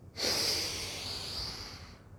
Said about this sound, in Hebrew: בזמן שאתם על השביל, בואו ננשום כמה נשימות שלוש טובות, עמוקות, שייתנו לנו יום רביעי נעים, ואנחנו נתחיל. נושמים? נושמים.